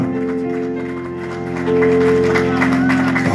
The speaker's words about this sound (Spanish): Alguien debe un fuerte aplauso al Señor en esta hora.